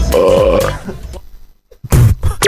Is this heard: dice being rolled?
no